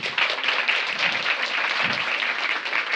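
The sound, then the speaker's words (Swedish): Steady, dense applause from an audience at a film breakfast event for the morning's guest, Isabella Eklöf, many hands clapping at once in a continuous crackling wash that holds at a fairly loud, even level throughout. “Nu skulle jag vilja att ni ger en varm applåd till morgonens gäst, Isabella Eklöf.”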